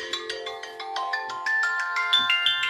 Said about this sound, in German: Jetzt werde ich ja noch auf dem Handy angerufen. Ich komme nicht drauf klar. Ich mache mal kurz leise.